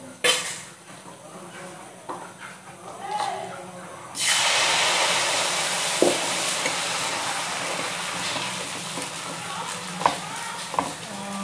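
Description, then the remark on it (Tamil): After a few quiet kitchen clinks, dosa batter is poured in a round onto a heated pan and bursts into a loud, steady sizzle that hisses on to the end, with occasional utensil taps over it. “சரி சட்டி காஞ்சிச்சு இப்போ நம்ம தோசை மாவை ஊற்ற போகின்றோம்”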